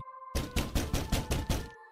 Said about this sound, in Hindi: कुछ देर बाद उसे आवाज आई कोई दरवाजा खटखटा रहा था